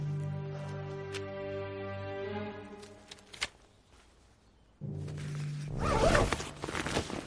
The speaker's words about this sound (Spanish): Comienza a abrir la cremallera.